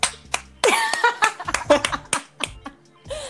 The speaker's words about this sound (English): So I just want to give it up, give a round of applause for my girl, my big, the queen.